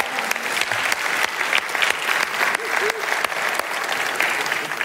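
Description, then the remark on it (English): A church audience claps steadily to welcome everyone, including those joining from the Springboro, Beavercreek, Northmont and Classics campuses: a dense, sustained wash of many hands with no pauses, fairly loud throughout. A few faint voices and a brief whistle-like tone rise briefly under the clapping. “Can you give everyone a round of applause?”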